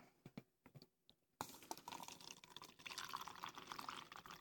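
A few light clinks and taps, then black tea pours steadily into a cup, a continuous splashing trickle that lasts for several seconds with no talking.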